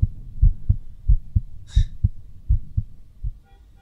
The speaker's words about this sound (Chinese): 我现在这样的心跳的话，你一定会问我：“喂喂喂，怎么心跳的这么厉害？是不是在想什么不好的事情？”